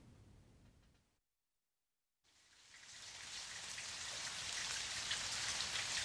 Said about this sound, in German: Was stehst du denn da im Regen rum?